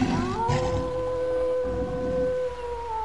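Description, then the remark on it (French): A long, drawn-out wolf howl rises and holds steady over a low, rough roaring rumble of lions, wild beasts crying out together at night, loud with no one speaking. “De ce lieu montaient les gémissements furieux de lions refusant leur chaîne et rugissant dans la nuit.”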